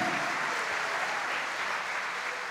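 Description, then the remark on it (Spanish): A crowd applauds Christ, a dense wash of many hands clapping at once with no clear individual beats, holding an even loudness for a couple of seconds. “Dale un aplauso a Cristo, a su nombre, gloria.”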